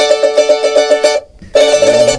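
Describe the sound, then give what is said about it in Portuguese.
A cavaquinho minhoto strummed with the index finger alone in quick, even strokes of a bright chord, loud, pausing briefly before the rapid strumming starts again. “E se for só com um.”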